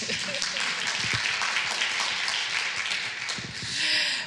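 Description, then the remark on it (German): Audience applause: a dense, steady wash of many hands clapping that fills the whole moment and swells slightly toward the end, with faint voices murmuring underneath. “Ja, das verdient einen Applaus.”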